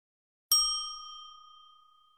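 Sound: ding chime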